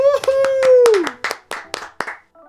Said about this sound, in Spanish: ¡Eso! ¡Aplausos!